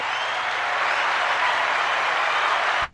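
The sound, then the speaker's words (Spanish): A burst of crowd applause, dense and steady, many hands clapping at once for about three seconds before cutting off abruptly. No voices are heard. “Ponle, un aplauso de esos que tienes por ahí en la tos, por si nos está escuchando.”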